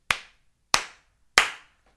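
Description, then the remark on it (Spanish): Three sharp hand claps made once recording has started, evenly spaced about two-thirds of a second apart, each a crisp, bright smack with a short ringing tail, with no voices or other sounds around them. “Deja aplaudir una vez.”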